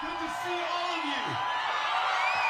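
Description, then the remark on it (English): A political rally crowd in Texas roars with sustained cheering, whoops and shouts rising over a dense, steady wall of voices, with a few voices sliding up and down above the din, as Beto O'Rourke stands on stage. “Then stands there, soaking up the energy of the crowd”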